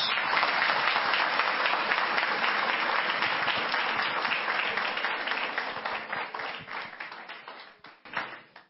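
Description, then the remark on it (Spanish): A crowd at a morning talk claps loudly and steadily to welcome a diamond executive speaker, a dense wash of many hands that gradually thins and softens toward the end, with a few last scattered claps trailing off. “Vamos a recibirlo con un fuerte aplauso nuestro gran diamante ejecutivo”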